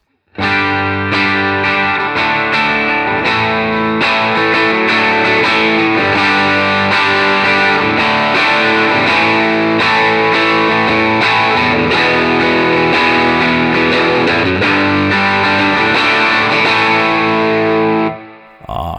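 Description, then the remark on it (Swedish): An electric guitar played through a thick, distorted Dream pedal, its knob turned up from nine o'clock to twelve while playing; sustained chords ringing loud and dense with shimmering chorus-like texture, holding steady for about eighteen seconds before cutting off. “Du, så du gör nu, du trycker på eh, stackars Dream-pedalen helt enkelt?”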